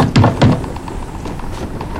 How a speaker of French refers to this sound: À travers la fenêtre, il aperçoit la lueur d'une lanterne. Un homme s'approche et tambourine la porte.